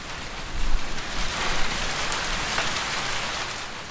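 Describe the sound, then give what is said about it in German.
Heavy, steady rain drums on the roof of a pile dwelling (stilt house), a dense continuous hiss with occasional heavier thuds of water, heard from inside the dark, windowless house with no voices. “Später hat es angefangen zu regnen und ich bin ins Pfahlbauhaus gerannt, um die Regengeräusche aufzunehmen.”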